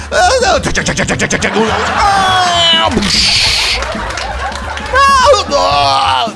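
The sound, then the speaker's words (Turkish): A voice imitates a bomb falling during a mock emergency alert test on the radio, a descending whistle that ends in a hissing, noisy burst meant as an explosion, surrounded by frantic shouting and vocal noise. “Bomba ıslıkla düşüyor ve patlıyor.”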